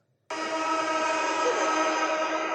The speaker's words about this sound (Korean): 부부젤라. 어? 정답. 아, 부부젤라 바로 맞추시네요. 부부젤라 알죠. 아, 부부젤라. 이거 진짜 시끄러웠던 때가 남아공 월드컵이었나?